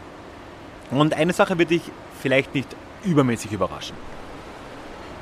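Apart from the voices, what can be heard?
rushing river water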